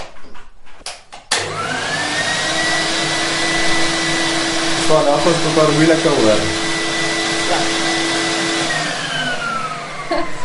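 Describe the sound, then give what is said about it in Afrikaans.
After a brief moment a screen-printing vacuum table's suction motor, which holds the paper in place on the table, starts up and runs steadily with a loud whooshing roar and a thin whine, while a voice speaks briefly over it. “Dit klink soos 'n stofsuier.”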